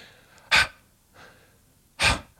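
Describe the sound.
A person imitates their own heavy breathing while sleeping at night: two loud, breathy huffs about a second and a half apart, with a softer intake between them, unaccompanied.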